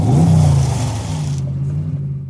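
A red sports car's engine rumbles low while a gritty crunch of its tires on the gravel at a house runs beneath it, then cuts off sharply as the car stops dead, leaving the engine idling alone.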